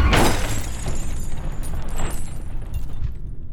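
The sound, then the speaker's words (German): A car loses control in a curve on a wet road and crashes into a tree. A violent crash with a sharp burst at the start, followed by the windscreen glass shattering and crunching debris that keeps rattling and tinkling for a few seconds before fading. “Die Scheibe vor ihr ist zertrümmert.”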